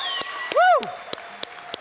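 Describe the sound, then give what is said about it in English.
Audience applause for mothers on Mother's Day, with scattered claps popping out over a steady crowd wash, and a single rising-and-falling whoop cutting through near the start. “Can we give them just a roaring applause, real quick, for all of our moms?”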